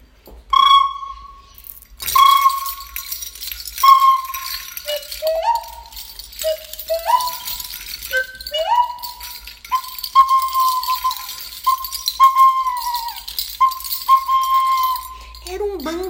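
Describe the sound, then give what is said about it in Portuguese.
Birdsong on a spring morning, heard on opening the door of a house: a run of about a dozen clear, whistled notes at a mid-high pitch, some gliding up or down, repeating in an unhurried rhythm with short gaps between phrases. “Numa certa manhã de primavera, ao abrir a porta da minha casa, me deparei com uma música linda aos meus ouvidos, mais ou menos assim.”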